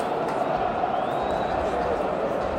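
A large crowd of Manchester United football fans sings a chant together at Wembley Stadium during a Brighton and Hove Albion v Manchester United match, a dense, steady roar of many voices holding a loose tune without pause.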